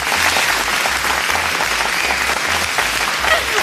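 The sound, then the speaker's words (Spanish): A steady burst of crowd applause, many hands clapping in a dense, continuous patter at an even loudness for several seconds, with a faint low hum underneath and no voices. “usted ganó mis aplausos.”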